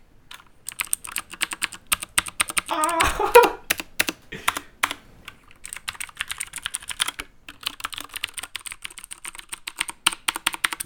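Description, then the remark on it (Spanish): Rapid, clicky keystrokes on a mechanical PC gaming keyboard while playing video games, crisp, with dense bursts of typing that briefly swell louder around the third second before settling into steady irregular tapping. “Uno de los sonidos más placenteros que se generan al jugar videojuegos en PC.”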